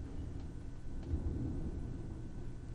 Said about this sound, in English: Did you just hear that that thunder out there? That was a big thunder.